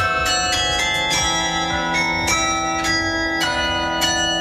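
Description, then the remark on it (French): The carillon of the city hall in Lyon, with some 64 bells, rings out the Ukrainian national anthem in a slow, stately melody, each struck note sounding clearly and overlapping with the sustained hum of earlier ones. The bells are loud and resonant, with no voices. “L'hymne ukrainien a été joué par euh, le carillon de l'hôtel de ville à Lyon.”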